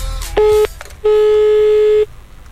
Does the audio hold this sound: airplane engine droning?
no